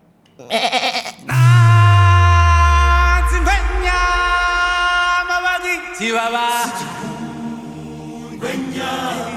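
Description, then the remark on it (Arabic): Sheep bleating loudly, with several long, wavering, nasal calls following one another and overlapping, some rising and falling in pitch, with no talking over them. “صوت كذا صوت هوش كيف يعني صوت هوش كذا؟”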